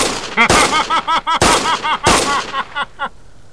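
Three loud, sharp gunshots ring out about a second apart, each with a brief echoing tail, while a strained voice cries out between and after the shots.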